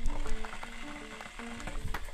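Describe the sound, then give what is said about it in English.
A kettle crackles and ticks as it begins heating very early on Sunday 13 June, before sunrise, in northwest England: a steady fizzing texture with scattered small pops and a faint low hum underneath, moderately quiet, with no voices. “That's the crackle of the kettle getting underway on Sunday, the 13th of June.”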